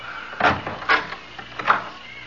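A closet door being opened, with a few short wooden knocks and rattles in quick succession, moderately loud, no voices.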